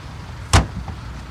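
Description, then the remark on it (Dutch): A small car nudges another car forward with a single short, dull thud, followed by a faint scrape, over a steady low engine rumble. No one speaks. “Met de kleine autootjes kan ik hem dus waarschijnlijk nog wel naar voren krijgen ja, hier zo.”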